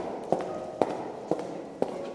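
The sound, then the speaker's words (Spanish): Four footsteps fall at a slow, steady walking pace, echoing along a corridor built entirely of grey concrete and lit by fluorescent tubes in the ceiling, each a sharp, hollow tap over a constant low background hum, with no voices. “Sus pasos hacen eco mientras camina a través de un pasillo construido completamente con un concreto gris e iluminado artificialmente por tubos fluorescentes instalados en el techo, uno tras otro, con unos dos metros de separación aproximadamente.”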